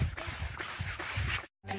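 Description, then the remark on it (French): A voice imitates cicadas chirring: loud, hissy, buzzing bursts pulse in a steady rhythm for over a second, then stop abruptly before a brief, more tonal sound begins. “On fait les cigales.”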